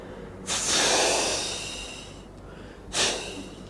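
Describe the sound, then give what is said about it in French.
A voice imitates a trolleybus air brake being pressed and released: a long, loud breathy hiss that slowly fades, followed by a second shorter hissing burst, with no talking. “Le frein à air, c'est quand on, presse et qu'on relâche, ça fait”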